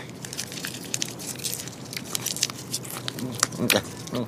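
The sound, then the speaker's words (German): Wet chewing of strawberry-flavoured gum, with a steady run of soft smacking and squishing mouth clicks, fairly loud and continuous throughout. “Das hört sich an, als würdest du Kaugummi kauen.”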